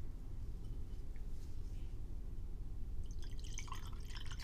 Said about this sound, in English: Do you guys want to hear some wine pouring ASMR? Are you ready? Let me drink this rest. Would you like some more wine? I would.